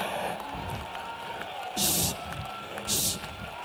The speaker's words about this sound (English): Oh, clap your hands.